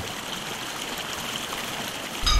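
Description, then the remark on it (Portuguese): A small waterfall of clean, cold water beside the Hebron fjord babbles and splashes in a steady, continuous wash of running water, even in level, with a brief low thump near the end and no voices. “Seguimos para sul e tomo nota do tamanho cada vez maior das plantas, enquanto registro o cantarolar de uma queda d'água limpa e fria junto ao fiordo de Hebron.”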